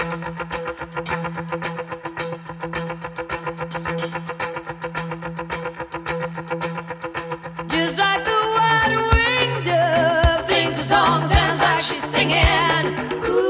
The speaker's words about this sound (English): So, really, right from the beginning, the guitar totally drives the bus on this tune. And yeah, it's partly the effect that he's getting, and it's also just the way that it's panned.